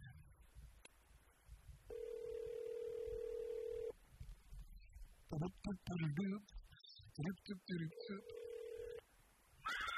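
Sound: telephone line ringing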